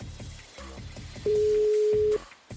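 A phone line's ringing tone as a call is placed to someone's phone to leave a message on their answering machine: one steady, loud electronic beep lasting about a second, heard over a low, murky background before it cuts off.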